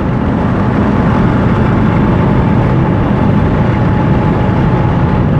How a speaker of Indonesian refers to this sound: lalu lintas sore ini terpantau ramai lancar nah gue sudah lewat mau pas di depan Mall Gandaria City